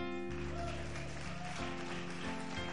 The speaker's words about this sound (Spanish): Dale, aplaude ahora.